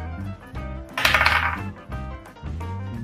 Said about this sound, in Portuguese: Tá, joga, joga, joga o seu D20 aí, vamos ver.